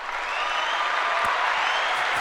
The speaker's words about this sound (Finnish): Tuosta saa aplodit, toi oli hyvä.